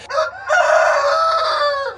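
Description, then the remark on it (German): A rooster crows loud, a short opening note followed by a long, drawn-out call that holds steady before trailing off, on the Martihof farm, where 30 roosters live together with the hens. There is no talking. “Die 30 Gückler auf dem Martihof die haben das Grosse losgezogen. Sie dürfen mit den Hennen leben. Und es tönt, als hätten sie recht ein glückliches Leben.”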